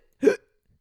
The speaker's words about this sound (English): And let's hear the hiccups.